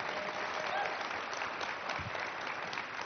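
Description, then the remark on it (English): A crowd applauds steadily, a dense wash of clapping that holds at an even, fairly loud level throughout with no voices rising above it. “And um, um, let's hear it for, for”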